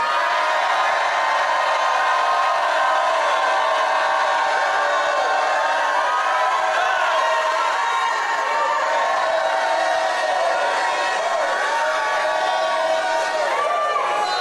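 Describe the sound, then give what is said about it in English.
A large audience at a religious service jumps to its feet and shouts and cheers together in a sustained, dense roar of many voices, loud and continuous throughout, with individual whoops rising out of the crowd noise. “Jump up to your feet and shout like you never shouted in your life.”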